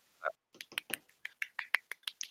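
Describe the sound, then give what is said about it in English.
A short burst of hand clapping on BOINC Radio, given to honour a man: roughly a dozen sharp, bright claps in a quick, slightly uneven rhythm, fairly quiet, with no voices. “Everyone give him a clap.”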